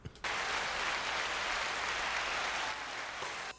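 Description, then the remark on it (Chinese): A burst of applause welcoming a special guest starts abruptly and holds steady for about three seconds, a dense, even wash of clapping without distinct individual claps, then cuts off. No one speaks. “就让我们现在用掌声来欢迎今天的特别来宾”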